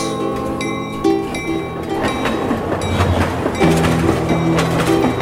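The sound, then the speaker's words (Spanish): A train rolls along the rails with a steady clickety-clack, the rhythmic clatter of wheels over track joints mixed with sustained metallic hums and squeals, fairly loud, no voices. “Trenes, trenes y trenes. Y trenes, y trenes.”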